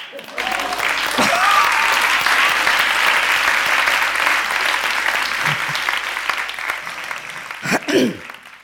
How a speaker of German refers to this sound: Okay, wir klatschen mal vom Balkon.